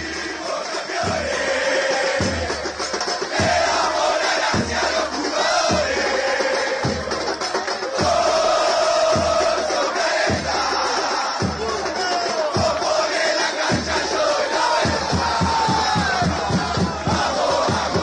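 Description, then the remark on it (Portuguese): A large crowd of Danubio football supporters chants the stadium song "Fuimos campeões" in unison, voices loud and sustained, driven by a steady pounding drum beat that repeats evenly throughout. “Fuimos campeões, a quarta música do Danúbio, como que no, no programa Som das Torcidas, vamos ouvir.”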